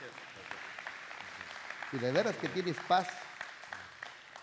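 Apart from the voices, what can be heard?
applause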